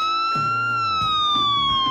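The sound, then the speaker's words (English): A loud police siren wails steadily, its high tone slowly gliding downward over two seconds, with a low, rumbling murmur underneath; used as a sound effect warning of movie spoilers. “And when we uh, there's a spoiler, there will be a big sound effect in the background of hmm sirens.”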